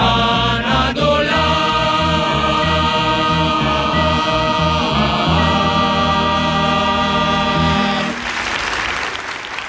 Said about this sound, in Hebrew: מחיאות הכפיים, למקהלת הרבנות הצבאית, בניצוחו של מנשה לברן